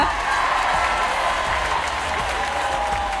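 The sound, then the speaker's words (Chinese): A crowd cheers and claps in a steady, dense roar of noise that holds at an even loudness for about three seconds, with no single voice standing out. “来啊，欢呼声在哪里？”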